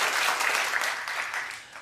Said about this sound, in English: Oh, you know her? Clap if you know her.